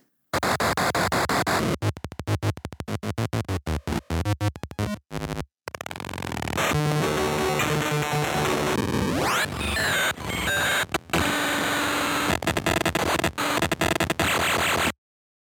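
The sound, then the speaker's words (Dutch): Harsh, chaotic electronic noise from a small handheld circuit-board instrument, a soldered board with four knobs plus two more, loud, stuttering in choppy bursts, then a sustained grinding squeal with a rising sweep. No one talks. “Een soort soldeerplaatje met vier knopjes eraan en dan nog twee knopjes.”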